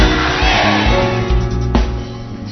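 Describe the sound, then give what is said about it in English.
A large crowd shouts together in one loud, sustained roar of many overlapping voices, answering a call to shout "I shall not die" and "I shall live", filling the space evenly before a brief sharp burst near the end. “What you just shouted has neutralized any satanic agenda for your life.”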